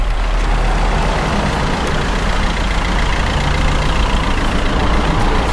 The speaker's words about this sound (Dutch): Daar komt een auto aan en de inspecteur houdt zijn hand omhoog en de auto stopt voor ons.